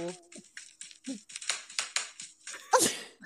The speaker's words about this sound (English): that is pretty good. Sounds like you're slapping those people hard. You are. It's so crisp.